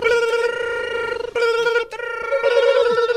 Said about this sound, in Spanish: A ver, ahí están sonando las líneas. Ahí están sonando los teléfonos como locos.